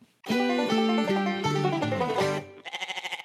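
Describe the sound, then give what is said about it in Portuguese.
A short, loud intro jingle of a few bright sustained notes stepping through a melody, ending with a brief wavering bleat like a goat's, with no talking. “E depois disso, pode chamar a vinheta”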